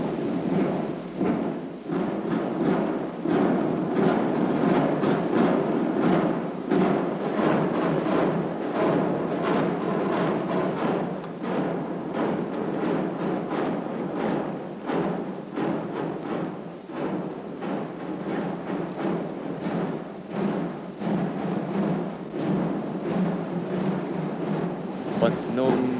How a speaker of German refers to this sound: Immer und immer wieder sich einhämmernd in die Gehirne, sich einhämmernd in die Herzen, die Trommelschlägel und die Trommelwirbel der beiden Züge von der Ludwigstraße her.